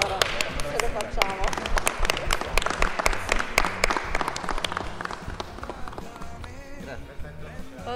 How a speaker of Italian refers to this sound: Vogliamo un applauso, facciamo in diretta.